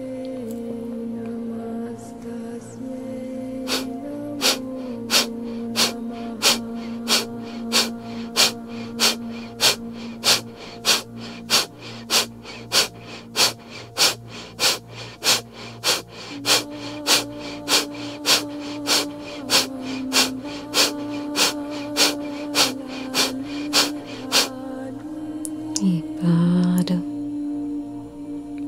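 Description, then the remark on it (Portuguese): Forceful, rapid rhythmic breathing exercise, the abdomen filled and emptied with sharp nasal exhalations pumping at a steady fast pace about once every half second, loud over a low sustained background drone, then a final deeper breath. “Expira, esvazia o abdômen, forte e vigoroso. segue forte e vigoroso.”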